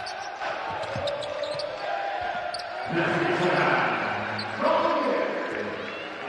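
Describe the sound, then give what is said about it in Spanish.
Indoor basketball arena ambience in Fenerbahçe's pavilion during the last game of the regular season, with a ball bouncing repeatedly on the court, squeaks and thuds amid a moderate crowd murmur that swells at times, while a voice talks over it. “El micrófono metido en el pabellón de Fenerbache suena así, último partido de la regular.”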